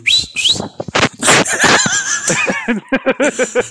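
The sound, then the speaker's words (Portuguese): A couple of short, rising whistles blown into the microphone, followed by breathy bursts and a run of rhythmic giggling laughter. “Mano, gente, faz esse assobio aí no bem. microfone que eu quero ouvir.”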